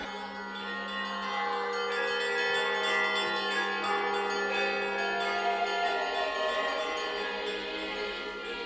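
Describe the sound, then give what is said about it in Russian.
Several modern church bells, cast with a fragment of an old broken bell melted into the alloy, ring together, their overlapping metallic tones blending into a steady, dense chime that holds at an even loudness from start to finish, with no voices. “То есть голос как бы старого колокола присутствует и сейчас вот в современных уже колоколах, да?”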